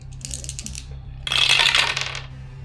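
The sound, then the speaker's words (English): Dice, rolled for a locksmith roll on a door in a game, clatter briefly across a hard surface, a short burst of light rattling, followed by a louder, denser tumble of clicking before it settles, over a low steady hum. “Uh, go ahead and roll me a locksmith or a, yeah, yeah, locksmith.”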